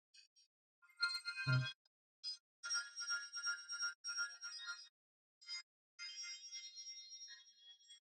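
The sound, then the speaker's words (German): Bright, bell-like tones from a multi-touch synthesizer app on iOS, played in short bursts and sustained phrases, with a low thump near the start and brief gaps of silence between notes; no one speaks. “Wirklich, das ist, das ist ein Touch-Synthesizer. Ein Multi-Touch-Synthesizer mit einer ja, sehr, sehr geilen nur, Oberfläche.”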